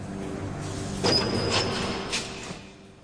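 A heavy metal door, unlocked with a key, creaks open with a brief high-pitched squeal, followed by a few scraping clunks as it swings, moderately loud over a low mechanical hum.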